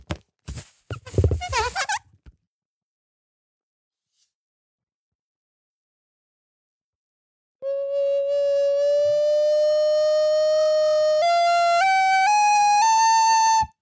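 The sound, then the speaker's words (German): A few short breathy bursts, then silence, then a loud, steady whistle-like tone that climbs higher in several quick steps toward the end, as the pipe fills with helium. “Man hörte, wie der Ton am Anfang ja. höher wurde, ja. als ich die geflutet habe.”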